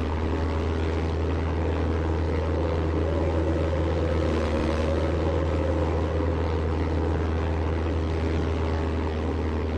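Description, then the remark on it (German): A propeller aircraft comes in to land at an ice-free spot near a camp, its engine droning steadily for the whole stretch, a loud, constant low hum with layered buzzing overtones and no voices. “Propeller, stopp!”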